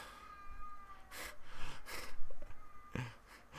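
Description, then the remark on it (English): A young child cries outside, a few short, strained wails in bursts with pauses between, over a faint background hum. No one speaks. “There's a there's a crying tiger outside.”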